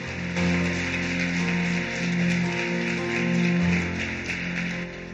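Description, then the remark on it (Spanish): An audience applauds the Lord in a steady, dense wash of clapping that lasts the whole stretch, with sustained keyboard chords humming underneath. “Le damos un fuerte aplauso al Señor.”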